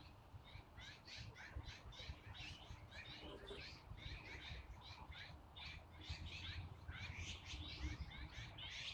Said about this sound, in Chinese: 灰喜鹊的声音很吵，很吵的。